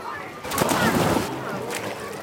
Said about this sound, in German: Ich kann es jetzt gar nicht erwarten, auch endlich hier zu schwimmen. So, und ab ins Wasser.